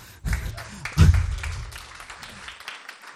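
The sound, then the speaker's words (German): A crowd claps together in a burst of applause lasting a couple of seconds, swelling quickly near the start and then tapering off into a few scattered claps. “Da darf man klatschen nach ihm, genau.”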